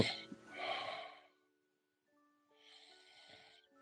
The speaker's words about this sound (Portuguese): Agora não é que ele tá dormindo, ele tá roncando.